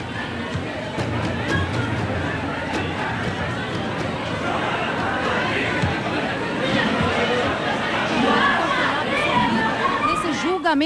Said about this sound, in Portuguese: Tem muita gente saindo aqui do tribunal, do júri.